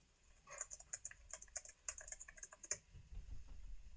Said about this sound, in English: Okay, no. Do you hear my typing? I do. I can. It's it's okay. ASMR.